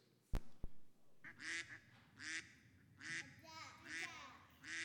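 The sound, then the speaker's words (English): A person imitates a duck, giving about six nasal quacks in a steady rhythm, fairly loud, after two sharp clicks at the start. “Is that a duck?”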